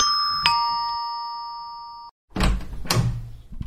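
A doorbell chimes with a bright, ringing tone that slowly fades out, followed by a muffled thud and rattling as a door is handled nearby.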